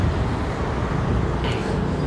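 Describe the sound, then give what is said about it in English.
A bus pulls up at a stop with a loud, steady engine rumble and road noise, and a short hiss of air brakes near the end. No one speaks. “Um, oh, my bus is here, so I'm gonna get on that.”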